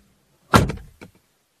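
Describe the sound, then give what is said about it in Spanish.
A car door shuts with a solid thump, followed by a second, quieter closing sound about half a second later, as people get into the car, with no voices. “Suben al auto y se dirigen a la casa de la tía de Paola.”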